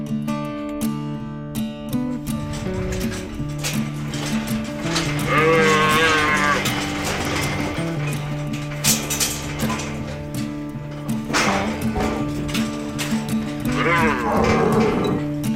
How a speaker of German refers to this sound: Wie im Wilden Westen. Rindergeblöke, Hufgetrampel, kräftige Leiber, lange Hörner.